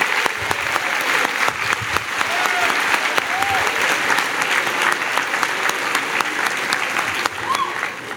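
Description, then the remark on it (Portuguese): Sustained applause from an audience, dense and steady with many overlapping claps at an even loudness, a few faint whoops or calls rising briefly above the clapping, as attendees turn and applaud the person beside them at the speaker's request. “Vire-se para o irmão do seu lado e dê uma salva de palmas para ele.”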